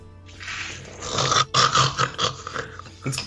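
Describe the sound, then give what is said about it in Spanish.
A loud, rasping snore, one long rough drawn-out breath with gurgling, fluttering pulses, ending in a brief snort. No one speaks. “Un ronquido fuertísimo es el que te despierta.”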